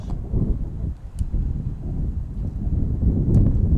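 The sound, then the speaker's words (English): Strong wind on a road buffets the microphone with a loud, steady rumbling, a continuous low roar that swells slightly toward the end, with a couple of faint brief clicks and no voices. “It's very windy on the road.”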